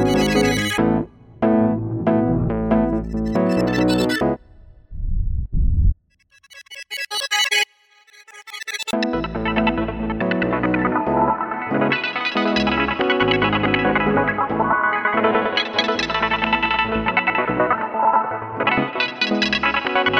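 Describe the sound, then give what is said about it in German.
A synthesizer plays dense, swirling tones drenched in reverb and a sweeping flanger effect, with a brief bright noisy burst midway, then sustained washy chords continuing loudly to the end. “Unter anderem war jetzt auch ein Reverb unten, Flanger.”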